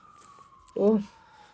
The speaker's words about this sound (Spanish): Sorry, hay una sirena. Mm. Siempre cuando grabamos sonido hay una sirena en algún lado o alguna construcción. Sí, no, siempre sí. Aparte yo vivo en el centro, así que hay mucho.